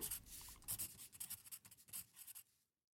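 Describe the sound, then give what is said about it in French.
A pen scratches steadily across a sheet of paper in short strokes, drawing a vertical line and writing, a dry rhythmic scribbling that continues for a few seconds before stopping into silence. No one speaks. “Et vu que j'aime que les choses soient claires, j'ai tracé une ligne verticale sur une feuille, et j'ai écrit à gauche pourquoi je détestais être ailleurs, et à droite pourquoi je détestais être ici.”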